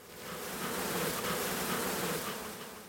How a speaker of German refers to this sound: Richtig laut wird es aber erst, als Rainer Linn einen der Bienenkästen mit seinen etwa 30.000 Bewohnern öffnet.